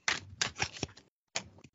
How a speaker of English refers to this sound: Okay, sounds like you're shuffling the cards. What are we looking at?